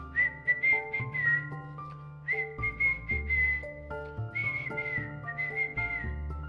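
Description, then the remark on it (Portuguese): A high, warbling whistle imitates a bird's song in three trilling phrases, each ending on a held note, over a steady musical accompaniment with a low bass line. “Olha o passarinho a cantar.”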